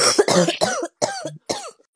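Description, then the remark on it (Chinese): A string of about five loud, harsh coughs right into a phone microphone, each a rough burst with a raspy tail, coming in quick succession with short gaps and no talking. “你你别专门拿着手机话筒那儿磕行吗？”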